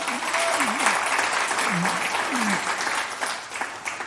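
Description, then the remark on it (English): A large church audience at Day 3 Church applauds steadily, a dense, loud wash of clapping, with a few voices calling out beneath it. “let, let me stop you and ask you if you're going to, uh, you know, I'm going to ask you to applaud again, but applaud for Jesus.”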